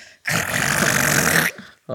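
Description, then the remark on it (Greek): A voice mimics a car engine revving as the driver steps on the gas after scraping the car door on a pillar in a parking garage: one loud, raspy, growling burst held for over a second, steady and rough in tone, then cut off abruptly. “Και ακούω ότι κάνω κρακ ακουμπάω την πόρτα, αλλά από τον πανικό μου λέω γιόλο, απλά πατάω γκάζι και ακούγεται.”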